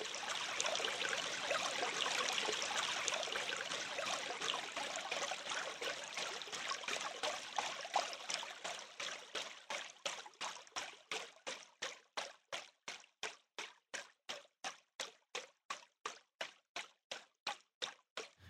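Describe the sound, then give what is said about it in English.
A rushing stream flows steadily at first, then is progressively chopped in Ableton's beats mode, with the transient envelope lowered in real time, into quick, evenly spaced bursts of water with silent gaps between them, forming a regular rhythmic pulse by the end. “we can turn a stream into a funky syncopated groove”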